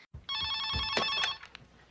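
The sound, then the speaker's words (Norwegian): A telephone rings once in a bright, trilling burst lasting about a second, loud, in a scene from a teenage high school horror film, then cuts off and leaves a faint, quiet tail with no one speaking. “noen som driver og ringer folk og stalker dem og dreper dem one by one.”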